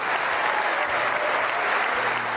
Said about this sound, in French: Lorsque le service est enclenché, le silence règne dans les tribunes jusqu'à la fin de l'échange, où les voix se font alors entendre pour encourager leurs protégés.